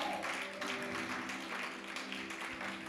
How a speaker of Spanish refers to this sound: Hasta aquí mi parte, denle un aplauso a Dios. Déselo más fuerte. Yo no le di tan duro.